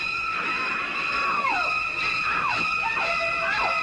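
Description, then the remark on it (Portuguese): A voice imitates the shrieking violin stabs of a horror film's shower scene: a run of sharp, high screeches sliding downward, repeated several times over a steady hiss and sustained whistling tones. “Fiz igualzinho, ó. Aí, ó. Esse é o chuveiro, né? Chuveiro.”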